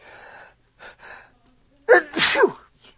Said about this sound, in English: Oh, I gotta sneeze.